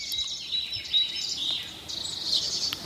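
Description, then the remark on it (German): Birds chirp continuously through an open window in a big city, a dense, bright twittering from several birds, with faint outdoor ambience and no voices. “Und die Vögel zwitschern, wir sind immer kurz still.”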